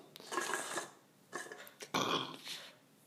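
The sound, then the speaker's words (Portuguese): Several loud burps in a row from someone drinking a 51 Ice Gin Tônica, each a raspy, gurgling belch of varying length with brief pauses between them, no talking. “Tô arrotando pra caramba.”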